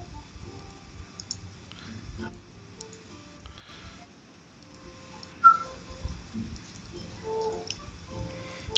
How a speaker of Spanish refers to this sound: Nada más escucha este. Animal Crossing. Animal Crossing de fondo.